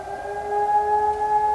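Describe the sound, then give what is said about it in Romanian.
A steady warning siren holds a sustained, loud tone with bright harmonics for the whole stretch, slightly swelling in the middle, with no voices over it. “știm ce înseamnă semnalul ăsta sonor, pentru că el e împărțit în mai multe secvențe.”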